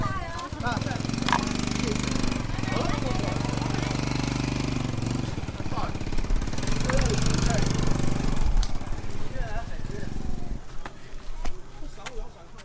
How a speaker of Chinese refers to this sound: 我们的行程总是在越南语的纠结、摩托车的喧闹，还有点钱点到手发酸的苦恼中度过的。